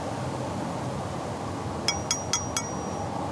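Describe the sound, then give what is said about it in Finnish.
Four quick metallic clinks in a steady rhythm, bright and ringing with a lingering tone, over a low background hum, from a blacksmith-forged iron massage tool called a pain hammer, an elongated round-edged iron object. “Tämä on tämmöinen sepän takoma, tämmöinen rautanen”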